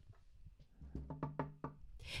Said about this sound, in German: Äh, warten Sie, ich klopfe mal äh, bei Herrn Schmölzer Wahlhuber.